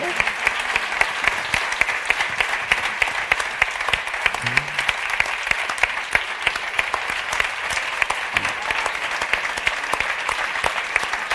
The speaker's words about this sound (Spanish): Hombre, pero que, que os venid, que os vean, que os aplaudan. Coño. Más.